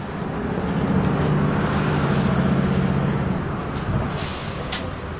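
A bus engine idles with a steady, low rumble and droning hum, joined by a broad wash of vehicle noise. It holds nearly constant throughout, and no one speaks.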